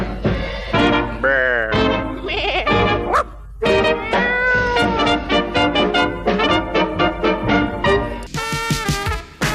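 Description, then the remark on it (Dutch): A rapid series of wavering, nasal sheep bleats repeats over a steady musical backing, some drawn out with a quivering pitch, most short and choppy, ending in a harsher burst. “Luister naar de schapen en de bokken in de wijn.”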